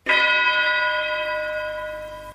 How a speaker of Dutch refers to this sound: zal ik die bel nog wat extra laten rinkelen?